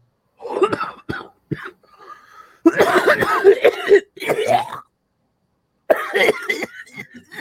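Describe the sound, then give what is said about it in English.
A heavy coughing fit: clusters of harsh, rasping coughs and throat-clearing come in loud bursts, broken by short pauses, with a final strained round at the end. “Coughing out a lawn there.”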